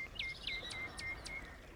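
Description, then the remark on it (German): Birds chirp in a forest, a rapid series of high, clear tweets repeating about every quarter second over a quiet, faintly hissing outdoor background. “Einfach nochmal, wir sitzen gerade im Wald, hören die Christlibären zwitschern,”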